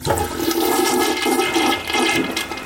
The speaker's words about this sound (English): Uh, in China, the uh, they're actually uh, making students pay for excessive flushing.